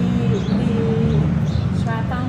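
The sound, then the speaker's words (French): A bird calls outdoors in a city, a few short chirps near the end rising over a steady wash of low background rumble and noise, moderately faint. “Je pense qu'il y a un oiseau qui n'a pas aimé ça parce que je l'entends, il n'est pas content.”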